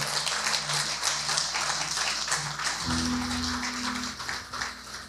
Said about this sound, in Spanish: Dale un aplauso al Señor.